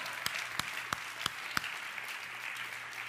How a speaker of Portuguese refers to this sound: Se você vive o melhor de Deus, aplauda Ele.